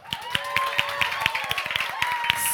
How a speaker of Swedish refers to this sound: En applåd för artisterna.